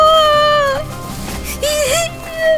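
A girl cries close by in loud, high-pitched wails, two or three drawn-out sobbing cries separated by a short ragged pause, with no talking alongside.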